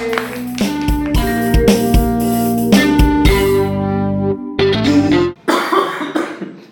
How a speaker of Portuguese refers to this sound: Muito segurando, bem. tava segurando a tosse.